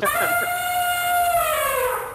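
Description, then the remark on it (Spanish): An elephant trumpets in one loud, sustained brassy blare lasting about two seconds, its strong harmonic tone sliding slightly downward in pitch before trailing off. “Ay, ya, ya comenzó a barritar el elefante.”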